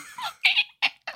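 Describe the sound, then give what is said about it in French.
A voice makes a few short, high-pitched squeaky chirps and squeals, imitating the cry of a baby phoenix, in quick bursts separated by brief pauses, fairly clear. “C'est le bruit du bébé phénix.”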